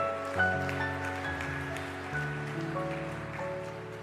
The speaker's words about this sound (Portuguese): Se você crê, aplauda aquele que é santo e é bom.